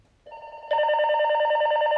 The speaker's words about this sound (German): Habt ihr vielleicht so ein bisschen gehört. Das andere, was ich ein bisschen versteckt habe, hat erst geklingelt und dann ist das zweite hier auch automatisch angefangen.